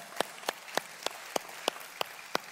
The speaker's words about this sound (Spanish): Bienvenidos y como ven si les damos un fuerte aplauso a los que nos están visitando por primera vez.